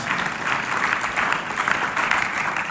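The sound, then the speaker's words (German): An audience gives warm applause to all mothers, thanking them for their commitment. Many hands clap steadily in a dense wash with no pauses, holding at an even, fairly loud level throughout without any talking. “aber wir geben doch einmal allen Müttern einen herzlichen Applaus und sagen merci vielmals für euer Engagement, das ihr gemacht habt für uns.”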